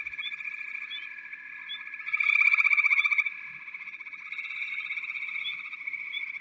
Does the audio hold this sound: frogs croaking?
yes